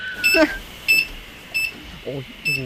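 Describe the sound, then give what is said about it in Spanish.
A mobile phone emits four short, high electronic beeps at uneven intervals, each a crisp chirp, while faint voices murmur in the background. “¿Qué es eso? ¿Un transistor? Sí, algo parecido.”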